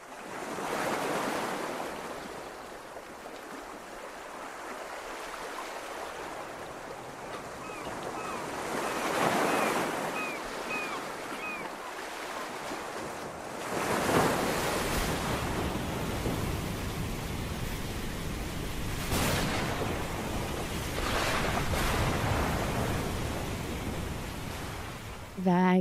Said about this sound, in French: Euh, l'air marin, la tempête qui se lève aussi. On a presque l'impression d'y être.